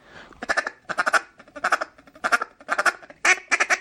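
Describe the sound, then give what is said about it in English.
Rapid bursts of duck call chatter made by hunters as background calling for approaching ducks, quick clustered quacking notes in repeated runs, with a few higher whistle-like tones mixed in, loud with no talking. “just a little bit of chatter and some whistle.”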